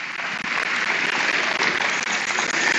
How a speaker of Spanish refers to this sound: En el nombre de Jesús Denle un fuerte aplauso a nuestro Dios Todopoderoso por ello.